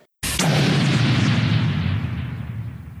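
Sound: explosion sound effect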